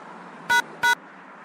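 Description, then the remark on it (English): Two short, clear keypad tones from a phone during a call, evenly spaced about a third of a second apart, over a faint steady background hum with no talking. “Well, there's something beeping in the phone.”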